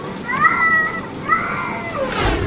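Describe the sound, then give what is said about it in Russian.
A cat panicking inside a washing machine filling with water, put there by people in Magnitogorsk, Russia, yowls in distress twice, each cry long and wavering, over a steady background of rushing, sloshing water. “Магнитогорска и ее приятели решили постирать провинившегося кота в стиральной машине.”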